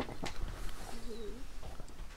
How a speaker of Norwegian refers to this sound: Fugle synger, hører du det?